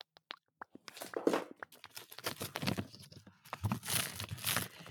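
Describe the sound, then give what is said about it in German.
Paper wrapping is torn and crumpled, starting with a few sharp crinkles, then building into a busy, continuous rustle and rip with brief pauses between louder bursts. “Nee, das ist Papier.”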